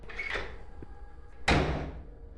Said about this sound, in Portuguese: Ele sai e fecha a porta.